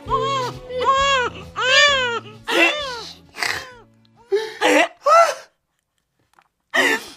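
A newborn baby cries just after being born, in a string of loud, wailing bursts, each rising and falling, with short breathy gaps between them and a low steady hum underneath, then a pause before one last cry.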